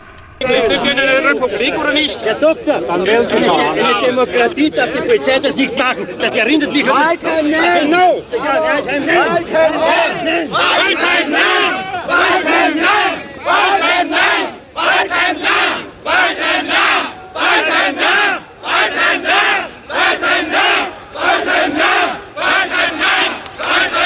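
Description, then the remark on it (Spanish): A large crowd chants a name in loud, rhythmic unison, the repeated two-beat shouts coming in steady bursts with short gaps between them, over a constant roar of massed voices. “¿Qué estamos escuchando? Valheim dicen, como Valheim no.”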